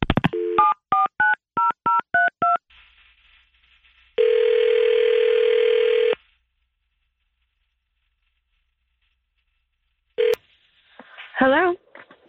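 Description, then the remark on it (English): A rapid run of about eight touch-tone dialing beeps as radio hosts call a woman on speakerphone, then a steady telephone tone holding for two seconds, followed by a lone beep and a brief voice over the line. “Let's call her up.”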